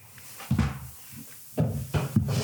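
Several short wooden creaks and knocks in irregular bursts about a second apart, from a wooden table creaking as it shifts under weight. No one speaks.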